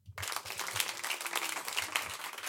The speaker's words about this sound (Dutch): Mag een groot applaus